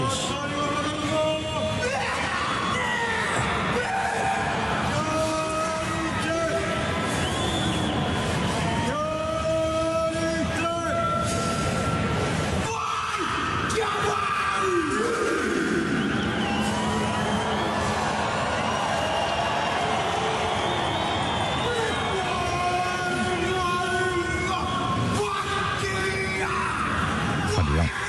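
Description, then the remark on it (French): The famous Māori haka Ka Mate, a ritual intimidation war chant: a large group of male voices shouting and bellowing in forceful, rhythmic unison, loud, with sharp yells punctuating the chant over a roaring background. “Et comme les All Blacks avant leur match qui ont récupéré ce, ce rituel-là pour intimider leurs adversaires, on écoute le fameux Kamate.”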